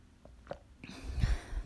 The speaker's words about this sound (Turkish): Bir yudum kahve aldım.